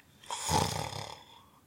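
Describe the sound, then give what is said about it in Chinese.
A single drawn-out snore from a dirty piglet sleeping on clean white bedsheets: a raspy, buzzing inhale that swells quickly, holds for about a second and then trails off, heard on its own with no talking. “不过就在这个时候，他听到了一阵打呼声，”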